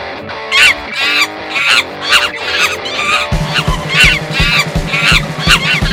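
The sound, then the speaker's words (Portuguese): A short, loud intro jingle with bright tonal stabs over steady rhythmic hits; a pulsing bass line joins about halfway through. No one speaks over it. “Vamos chamar agora a vinheta. Eu fiz uma vinheta.”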